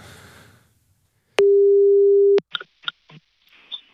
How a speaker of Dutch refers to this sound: Ik hoop dat hij opneemt. gaat vast wel gebeuren. telefoon gaat over.